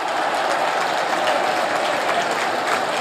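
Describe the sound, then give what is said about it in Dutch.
A stadium crowd at a football match cheers a goal by a Yugoslav player in a loud, unbroken roar of voices and clapping that holds steady at full strength for the whole three seconds, with no speech on top. “Publiek op de banken voor deze goal van de Joegoslaaf.”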